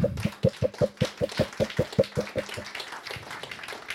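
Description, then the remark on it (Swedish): Quick, steady rhythmic clapping fills the first couple of seconds, then loosens into softer, scattered applause that fades out. No one speaks. An audience is applauding all the performers at the event. “Hur som helst kan ni ha tusen tack för att ni kom hit och alla som har varit här och ge en applåd nu åt alla som har uppträtt här.”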